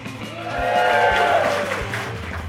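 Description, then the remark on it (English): A small audience at Weird Wednesday at the Joy Cinema and Pub in Tigard gives a brief, thin round of applause, scattered clapping lasting a couple of seconds with a few faint cheers mixed in, fairly steady in loudness. “That's what you call a cheap round of applause.”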